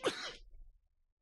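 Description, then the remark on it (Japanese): A single sharp sneeze bursts out, a brief explosive blast of breath that fades quickly into a low, quiet rumble. “あ、くしゃみが出ます。”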